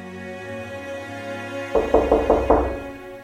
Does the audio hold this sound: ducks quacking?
no